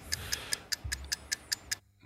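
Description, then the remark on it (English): A quiz countdown clock ticks steadily, about two crisp ticks per second, nine in a row, with a faint low hum underneath and no voices. “Let's get the let's get the clock on.”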